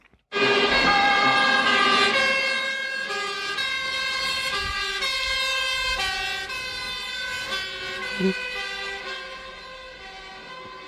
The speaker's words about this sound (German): Und jetzt hören wir uns den Löschzug der Berufsfeuerwehr Wien an.